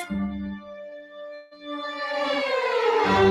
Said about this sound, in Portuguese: O pequeno príncipe vai se aproximando e, ainda cansado de sua viagem, solta um gostoso bocejo.